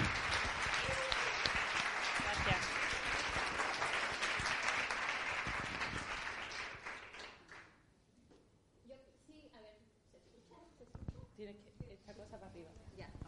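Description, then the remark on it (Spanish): A crowd applauds loudly and steadily for several seconds for an award-winning author, the clapping thinning and fading out before a single voice begins speaking. “De hecho, está de enhorabuena también, se merece bastantes aplausos también, porque viene de recibir varios premios, como el premio Cálamo, el premio de las librerías de Madrid al libro de ficción, en fin, que, son dos grandes y, y es muy bonito hoy.”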